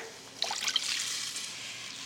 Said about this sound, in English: And then I'll pour in a cup of water.